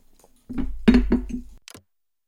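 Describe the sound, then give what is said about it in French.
A glass or cup clinks and knocks a couple of times, followed by a brief airy slurp or swallow as a small sip is taken, with no talking. “Attendez, je bois une petite gorgée de montée et je vous raconte.”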